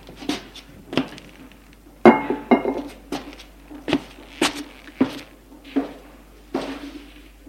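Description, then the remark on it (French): Glass bottles clink together in a series of sharp, ringing knocks, about a dozen spaced irregularly over several seconds, fairly loud, with no voices, as a refrigerator is opened to take out a bottle of orange juice. “Ouvrez le réfrigérateur pour prendre une bouteille de jus d'orange.”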